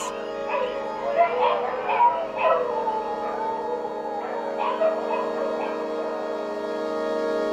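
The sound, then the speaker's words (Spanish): Several dogs whine, yip and bark in short, uneven bursts over a steady, high-pitched night drone, the vocalizations clustered early and fading off toward the end. “y los coquíes, por supuesto, y los grillos, y los perros.”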